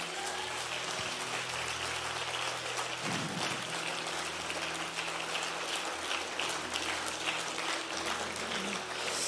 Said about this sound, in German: Lass uns mal den Leuten einen riesigen Applaus geben.